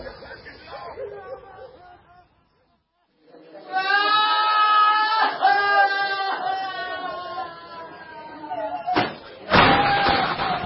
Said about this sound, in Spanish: La nieta Matilde azota la puerta de su cuarto.